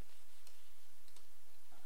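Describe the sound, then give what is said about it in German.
A few quiet, sharp mouse clicks, made while working with layers and a layer mask in image-editing software, spaced out over a faint background hiss, with no one speaking. “Ich klicke jetzt hier auf die Ebene-Maske, um den Modus ab.”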